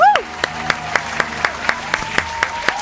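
An audience claps steadily and rhythmically for a band introduced to perform, with sharp claps landing evenly about four times a second over a murmuring crowd background and a faint sustained tone lingering underneath.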